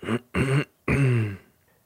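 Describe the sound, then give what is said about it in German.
A man clears his throat, three rough voiced bursts in quick succession, the last one longest, then quiet. No talking. “Er räusperte sich wieder.”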